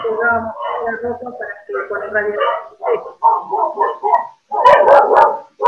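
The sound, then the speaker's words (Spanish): A dog barks repeatedly in short, sharp bursts, with whiny yips mixed in, while people talk over and around the barking. “el perro no está invitado.”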